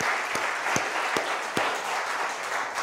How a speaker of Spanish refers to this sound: Bueno, dele un aplauso gigante a Dios y tome asiento.